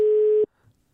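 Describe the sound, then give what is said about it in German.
A single steady telephone ringback tone sounds loudly for almost half a second, then cuts off abruptly, leaving near silence with a faint low murmur afterward. “Jetzt rufen wir an. Ja, rufen wir einfach mal an.”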